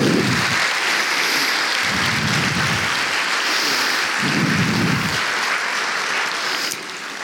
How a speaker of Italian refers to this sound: E quindi io vi chiedo un applauso per tutti loro. Grazie.